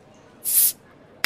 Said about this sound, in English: And then just sit back, relax Pop a bottle.